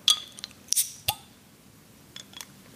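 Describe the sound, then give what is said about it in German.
A Heineken beer bottle being opened: a few glassy clinks, then a sharp cap pop with a quick burst of hiss, followed by faint clinks. No one speaks. “Es ist ein gutes Zischen. Ja, es ist ein gutes Geräusch.”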